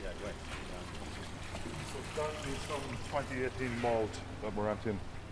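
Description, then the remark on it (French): Whisky trickles and pours steadily from pierced casks into a large trough at a whisky warehouse, a continuous splashing wash running under voices talking throughout. “Est-ce que vous entendez le bruit du whisky qui s'écoule”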